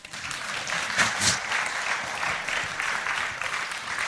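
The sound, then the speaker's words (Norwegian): An audience claps steadily, a dense, even patter of many hands at a fairly loud level, with a couple of slightly stronger bursts early on and no one speaking. “Ja, ble, ja, klapp litt, da.”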